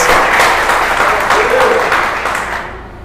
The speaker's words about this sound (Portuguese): Dê um aplauso para Jesus. Glória a Deus.